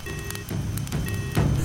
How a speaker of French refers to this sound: J'entends enfin toutes les alarmes qui sonnent depuis l'impact.